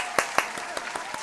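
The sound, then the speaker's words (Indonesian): Brief applause: six sharp, evenly spaced hand claps in a quick steady rhythm, the first two loudest and the rest softer, with no talking over them. “Yuk, tepuk tangan yuk.”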